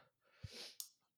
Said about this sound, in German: Gesundheit? Entschuldigung.